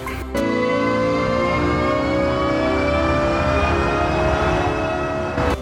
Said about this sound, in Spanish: está alistando su propuesta de sonido denominado sencillamente canto, el cual pretende ser el sonido de los vehículos eléctricos de la firma japonesa, un importante elemento en la estrategia de Nissan Intelligent Mobility y suena más o menos así.